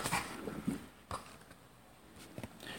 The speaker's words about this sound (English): Just then, a dog came along, taking a man for a walk.